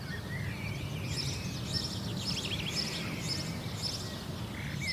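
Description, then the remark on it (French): A European robin sings far off in the morning, thin high warbling phrases recurring throughout over a steady low outdoor rumble, faint but continuous. “Le rouge-gorge au loin.”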